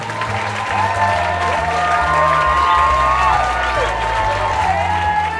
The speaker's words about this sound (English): Wow, listen to all that applause. I bet you guys didn't think I could get that many people in this little room. Actually, it really wasn't a bunch of people.